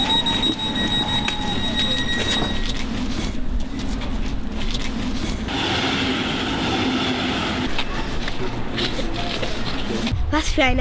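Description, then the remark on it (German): A suburban S-Bahn commuter train rolls steadily along the rails, with a constant low rumble, a thin electric whine and faint indistinct voices inside the carriage, ending in a brief screech. “Ich hab's doch gesagt, lass uns mal einen Tesla nehmen, dann müssten wir nicht mit dieser furchtbaren S-Bahn fahren.”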